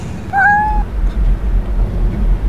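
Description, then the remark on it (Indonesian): A black cat gives a single short, clear meow, rising slightly in pitch, over a steady low rumbling background with no one speaking. “Dan ketika aku sentari lagi, jelas itu seekor kucing berwarna hitam.”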